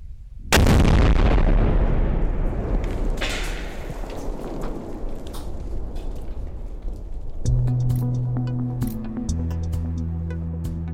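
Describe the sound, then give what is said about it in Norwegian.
A single heavy detonation booms out suddenly as the Norwegian Armed Forces blow up old military grenades in Norwegian nature, its deep rumble rolling and slowly fading across open terrain; a few seconds later, steady music begins under the dying echo. “Forsvaret rydder tusenvis av granater i norsk natur”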